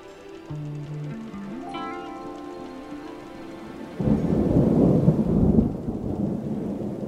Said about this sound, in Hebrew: ואז פתאום מתחילה סערה.